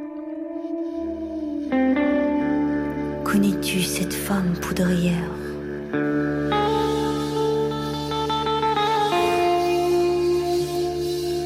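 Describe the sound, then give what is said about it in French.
A song plays loudly and continuously, its sung vocal washed in echo and reverb over sustained, layered instrumental tones that shift partway through. “on se quitte tout en douceur et en inspiration avec une partenaire de longue date de la Maison du Livre”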